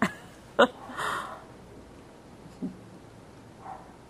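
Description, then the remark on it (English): A couple of dog barks from upset dogs ring out in quick succession near the start, followed by quieter, scattered yelps or whines, with no talking. “and my dogs get upset.”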